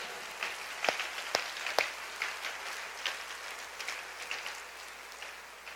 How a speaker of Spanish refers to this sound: Dele más fuerte palmas al rey, por favor, apláudale fuerte.